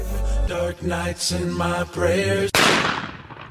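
A single loud gunshot from a police officer cracks out near the end of a music video, its echo fading over the final second, following a sustained, pulsing tonal passage that sounds musical.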